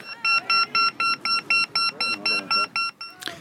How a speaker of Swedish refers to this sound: själva bollen är drygt 12 cm i diameter, väger knappt ett halvkilo och innehåller en högtalare som piper.